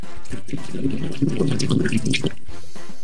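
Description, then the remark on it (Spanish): A toilet flush sound effect: a loud burst of rushing, gurgling water that swirls for a couple of seconds before quickly draining away into quiet. “Mira nomás, como no tenemos cortinilla, te voy a poner este sonido original de tu flush informativo.”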